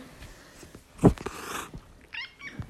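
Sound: cat meowing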